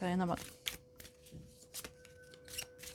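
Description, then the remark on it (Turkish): Tarot cards are shuffled and one card is drawn during a tarot reading, with a handful of quick, crisp papery snaps spread across a few seconds. A short spoken word opens the moment, and a faint steady hum sits underneath. “Şundan da bir tane çekeceğim ya.”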